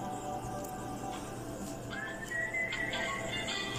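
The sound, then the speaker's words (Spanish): A breathy, faltering attempt to whistle a tune, mostly rushing air with a thin, wobbly pitch surfacing partway through, without any talking. “Perdónenme, tribu, yo no sé chiflar, así que.”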